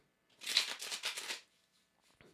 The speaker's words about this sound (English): Connect to the cards by listening to the sound of them being shuffled.